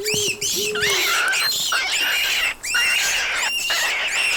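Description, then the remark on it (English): A couple of rabbits shriek in shrill, piercing squeals, overlapping cries rising and falling in pitch almost without pause, loud, with a brief lower wail near the start. “Just then, a couple of the bunnies shrieked.”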